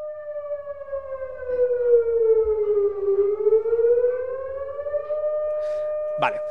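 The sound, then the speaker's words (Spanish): A loud wailing siren dips slowly in pitch then rises again over several seconds, steady and continuous, with a brief sharp burst at the very end. “Bueno, pues si te parece bien, hacemos sonar la alarma y empezamos a hablar ya con spoilers.”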